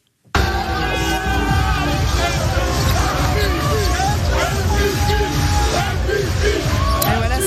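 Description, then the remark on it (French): JA Vichy basketball players cheering on the court after winning the Leaders Cup final 97 to 90 against Champagne Basket: a loud, continuous roar of overlapping shouts and whoops fills the whole stretch, with many voices yelling at once and no pause in the jubilant noise. “c'est la, joie immense hein, des joueurs qui exultent sur le parquet après leur victoire en finale de la Leaders Cup hier 97 à 90”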